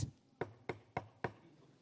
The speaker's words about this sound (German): Er hat wieder geklopft.